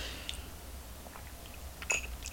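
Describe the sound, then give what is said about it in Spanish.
A quiet sip of bitter black coffee without sugar, the first of the day: a few soft mouth clicks and slurping noises, then a brief, slightly louder gulp near the end, with no talking. “Así que me voy a dar este sorbito, el primero de la jornada.”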